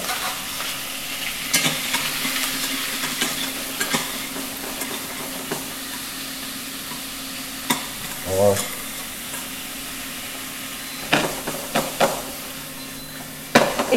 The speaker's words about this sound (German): Okay, die Kalamari gehen in die Pfanne. Wir braten sie an.